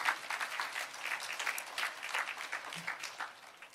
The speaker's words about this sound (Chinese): 拍手把荣耀归给主，好不好？Amen。